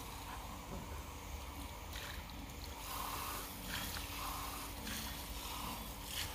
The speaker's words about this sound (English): Just to wash the glasses before we taste another one.